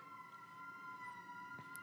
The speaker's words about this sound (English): Damn, dude. I know sirens are coming. Sirens are coming for us.